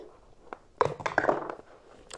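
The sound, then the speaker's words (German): A normal die is rolled, giving a short burst of quick hard clicks and rattles lasting under a second, then a soft final tap as it settles on a three. No one speaks. “Ich würfel als mit dem normalen Würfel.”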